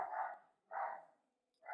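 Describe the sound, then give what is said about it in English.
A dog barks in a steady series, three sharp barks spaced roughly half a second apart, clear with no voices over them. “sorry our dog is it's just getting so crazy”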